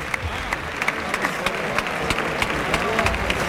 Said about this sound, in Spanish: Calerito que recibe fuerte ovación merecidísima.